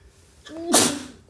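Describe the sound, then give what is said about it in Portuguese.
A single sneeze from a person with rhinitis: a short rising voiced intake followed by a sudden loud, breathy burst that fades quickly, with no talking around it. “Só um minutinho que acho que eu vou espirrar aqui.”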